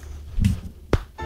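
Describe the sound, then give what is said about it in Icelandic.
A thumb joint cracks once with a short, sharp pop, preceded by a soft muffled thump and light rustling of movement. No one speaks. “Það er gott brak maður.”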